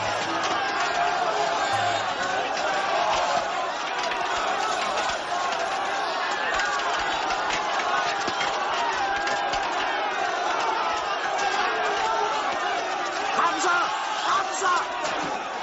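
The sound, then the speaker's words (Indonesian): Dozens of Quraysh unbelievers surge in together, their overlapping shouts and yells forming a dense, continuous roar that stays loud and steady throughout, with scattered sharper cries rising out of the din. “Mendengar penolakan Amir, puluhan kaum kafir Quraisy serentak berdatangan.”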